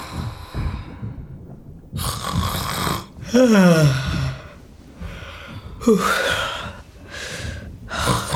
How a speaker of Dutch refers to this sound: kom maar je snurkt. Ben ik hier echt de enige dat niet kan slapen?